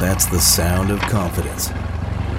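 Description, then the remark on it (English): A boat engine fires up and chugs steadily with a low, pulsing rumble, in an advertisement for Nationwide Battery, running beneath a man's voice at first and then continuing on its own near the end. “For over 30 years, boaters and fishermen have counted on Nationwide to fire up their engines to keep their electronics going week after week, year after year.”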